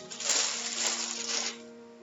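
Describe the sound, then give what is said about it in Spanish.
A dry, crackling rustle like someone crumpling a handful of dead leaves, produced by hand as an imitation. It is fairly loud, lasts about a second and a half, then fades into low hum. “Empiezo a escuchar como si agarraran hojas secas y decían así.”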